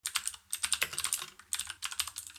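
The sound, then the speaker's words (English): Rapid typing on a computer keyboard during a job search, a quick irregular stream of crisp key clicks in bursts with brief pauses, clear with no voices. “All those little keystrokes make up quite the melody.”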